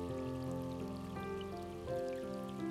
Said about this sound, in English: The rain beating on the awning gave off a pleasant sound, as if with musical rhythm and cadence.